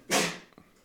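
A single abrupt sneeze: a loud, breathy burst that fades within a fraction of a second, followed by a couple of faint clicks. No one speaks.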